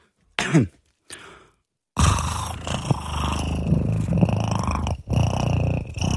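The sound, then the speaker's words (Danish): A person imitates a cat's purr, a couple of short breathy bursts followed by a long, steady, rumbling purr held for several seconds. “Det er, når katten spinder.”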